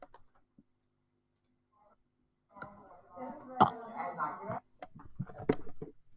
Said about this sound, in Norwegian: Og da satser jeg på at det er en litt sånn liten, sånn ynkelig rap. Litt sånn der eh, Sånn type rap, der.